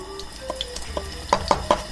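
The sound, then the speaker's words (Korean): A steady crackling sizzle of pancakes coated in flour and egg batter frying in a frying pan at home for Chuseok, with sharper pops and spatters bursting through near the end. Moderately loud, with no voices. “지글거려 지글지글 지글지글 사운드가 자진머리 장단으로 온 집안을 채운다 이것이 바로 추석의 맛.”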